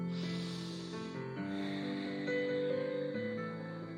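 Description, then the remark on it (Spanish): A slow, deep breath drawn in and then let out, an airy hiss that rises and fades over steady, soft sustained tones in the background. “Respiro profundo.”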